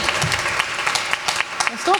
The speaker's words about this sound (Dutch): Applaus. En voor jullie zelf, dank jullie voor het komen.